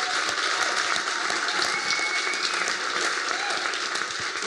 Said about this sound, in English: And get a massive round of applause for these three, please.